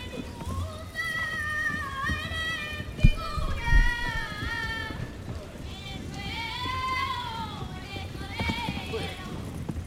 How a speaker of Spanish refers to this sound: Ahí escuchamos los cascos del caballo fusionarse con la voz del chiquillo, cantando. Ha entrado al patio de caballo este chiquillo y la ha cantado.